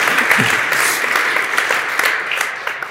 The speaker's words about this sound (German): Könnt ihr ruhig mal klatschen. Ja.